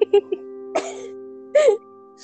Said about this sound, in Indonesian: aduh gue pengen batuk lagi